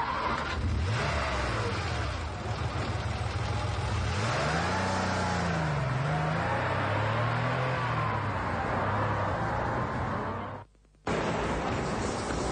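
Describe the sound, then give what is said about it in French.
A taxi's engine revs loudly as the car drives off after dropping a passenger at a villa in the rain, its pitch climbing and dropping through several gear changes over a steady roar, with a brief dropout near the end and no voices. “Ah, le taxi m'a laissé.”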